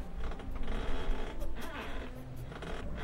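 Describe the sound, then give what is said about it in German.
A taut tether rope holding a balloon basket to the ground creaks and strains under load, a steady run of rough, grinding creaks with a few sharper squeaks, moderately loud, with no one speaking. “Allerdings war da noch immer so ein merkwürdiges knarzendes Geräusch. Das kam von dem Halteseil.”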